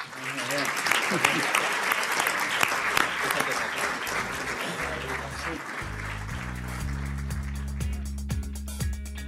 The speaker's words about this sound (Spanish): Así que, por favor, le vamos a pedir que sople las velas de esta tarta que están encendiendo ahora mis compañeras y que nos hagamos la foto de rigor y que demos un aplauso por 40 años más para este equipo, por favor.